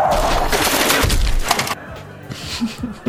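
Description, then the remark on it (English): A loud car crash into a cafe: a burst of splintering, cracking wood and debris for over a second, then quieter rumbling with a few dull body thuds as it settles. No one speaks. “you just drove. Wow. And it had a body thud, so that's pretty good.”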